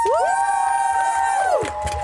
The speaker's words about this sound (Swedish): En stor applåd